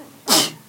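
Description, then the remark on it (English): A single sharp sneeze bursts out at the microphone, a quick explosive hiss of breath that fades within half a second, with no talking around it. “Bless you.”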